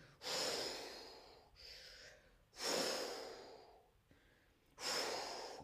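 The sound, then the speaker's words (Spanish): A person imitates the waves of the sea with their voice: three breathy, hissing whooshes, each surging up quickly and then ebbing away, with short pauses between and no talking. “Y si escribo esta palabra sin la H, hablamos de las olas del mar.”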